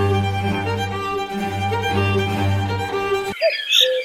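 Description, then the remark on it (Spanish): Bowed violins play a bright, repeating figure that mimics a cuckoo's two-note call over a steady string accompaniment, then the music cuts off abruptly and a few faint high chirps follow. “Bueno, pues así suena el cuco de Vivaldi.”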